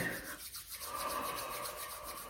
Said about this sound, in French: commencer par euh, frotter les mains, ébailler et grogner.